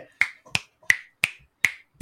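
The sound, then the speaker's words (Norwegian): Six crisp finger snaps in a steady, fairly quick rhythm, each a sharp click that fades fast, with silence between them and no talking. “jeg håper dere hører knipsingen, for at, liksom, at det skulle gå ganske fort.”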